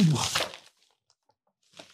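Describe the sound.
A burst of plastic bag crinkling as a shopping bag is unpacked, then a short pause and a second brief rustle near the end, with voices speaking over part of it.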